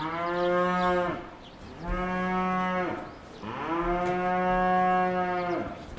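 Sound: cows mooing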